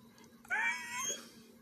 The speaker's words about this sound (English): That's my dog. He's saying hi, y'all.